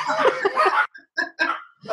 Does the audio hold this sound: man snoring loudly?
no